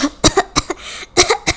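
A fit of harsh, rasping coughs, about seven quick bursts in two clusters separated by a short pause, fairly loud and with no talking.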